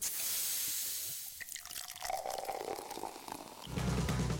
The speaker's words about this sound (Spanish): Advertencia. Escuchar el siguiente sonido puede ocasionar unas ganas incontrolables de destapar una 7-Up.